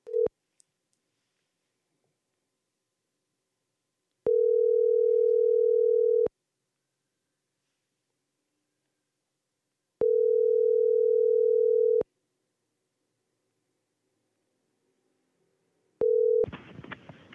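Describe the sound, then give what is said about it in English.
A phone ringback tone purrs in steady two-second bursts separated by long silent gaps, clear, repeating three times before a click and a rush of noise cut it off, while calling Kevin Gillespie of Red Beard Restaurants. “No, I'm gonna let's call Kevin Gillespie.”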